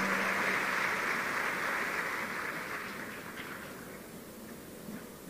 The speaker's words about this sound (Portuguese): Tome seu assento e dê um aplauso bem forte ao Senhor.